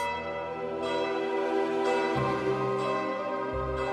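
Church bells peal in a steady sequence, each new strike landing about once a second over the long, overlapping hum of the previous ones. Loud, resonant and close, with no voices.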